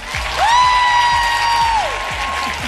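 A live show audience bursts into loud applause and cheering to vote for a contestant, with a sustained high whistle or whoop rising over the dense clapping for a couple of seconds.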